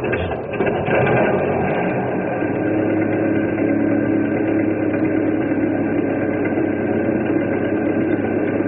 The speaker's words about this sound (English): I'll crank up this old engine and we'll cross over and pick them up.